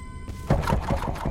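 A locked door being tried: a burst of dull, low knocking thuds and rattles, repeated several times in quick succession, fairly loud, following a faint steady hum.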